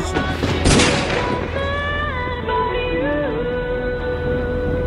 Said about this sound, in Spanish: Aún sonreía cuando la maté. Le disparé al corazón. La bala la atravesó y salió por detrás.